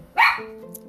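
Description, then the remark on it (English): A single sharp bark from Olympia, a female dog, rings out, followed by a brief lingering tonal tail and quiet background sound. “oh, and that's Olympia. She wants to say hi.”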